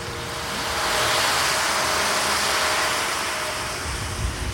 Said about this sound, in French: Je me trouve sur le site de Bal de neige au parc Jacques-Cartier, à Gatineau. Les canons à neige fonctionnent à plein régime.